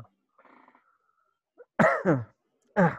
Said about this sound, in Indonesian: kok gue batuk tiba-tiba?